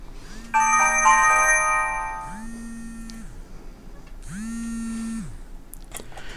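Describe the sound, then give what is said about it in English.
A bright multi-tone chime plays as a phone's default, changeable text message alert, followed by three buzzing vibration pulses in a steady rhythm, fairly loud, with no talking. “As you hear, the phone first announces then it makes that sound, that's a default sound, which can be changed. Then it vibrates three times.”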